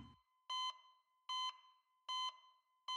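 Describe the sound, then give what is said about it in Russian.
Hospital bedside machines beeping: loud electronic tones repeating at a steady, even pace, four short bright beeps in a row with a faint hum between them and no voices. “Он слышал характерное звучание аппаратов, стоящих возле больничной койки”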